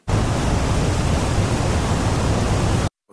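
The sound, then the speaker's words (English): A voice imitates a waterfall with a steady, loud, hissing rush of breathy noise that starts abruptly, holds constant for nearly three seconds, then cuts off sharply. “Um, I, I, I can do an impression of a waterfall”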